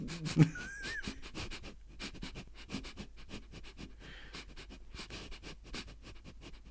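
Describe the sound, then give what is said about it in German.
A long run of quick, breathy sniffs meant to imitate a rabbit sniffing, dozens of short puffs in an uneven, rapid rhythm, fairly soft throughout, with a brief low grunt near the start and no one talking. “Irgendwas schnuffelt.”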